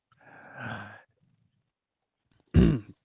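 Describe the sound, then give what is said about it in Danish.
Someone clears their throat twice: first a softer, raspy rumble lasting about a second, then after a pause a louder, short, gruff grunt-like clearing. “Undskyld, altså, skal, jeg skal lige rømme mig.”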